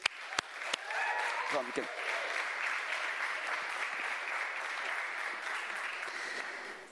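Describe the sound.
An audience breaks into sustained applause for the speaker's son, a dense, steady wash of clapping that holds at an even loudness for several seconds, with a few sharp claps at the start and faint voices mixed in.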